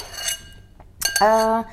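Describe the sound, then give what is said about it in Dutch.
Dishes and cutlery being loaded into a dishwasher: a few sharp metallic clinks and clatters, then a ringing, resonant clang of a pot or plate that hums briefly before fading. “En eh, ik wil altijd eh, alles eigenlijk, dat alles gewoon in één keer past in de vaatwasser.”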